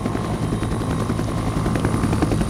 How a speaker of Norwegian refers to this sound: Men det er sånn kast, vindkast at de får ikke til å lande. Og de prøver to ganger. De jeg satt inni helikopteret der og ønska at det ikke skulle gå.